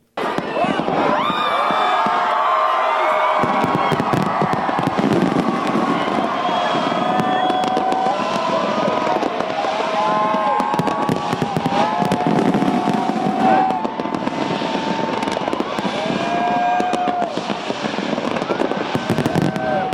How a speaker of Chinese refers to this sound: 当澳大利亚午夜钟声敲响时，超过一百万人观看了一场以悉尼海港大桥为中心的十二分钟烟花表演。